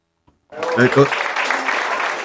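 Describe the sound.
After a brief silence, an audience bursts into sustained applause, a dense rush of clapping with a few voices cheering at the start, steady until the end.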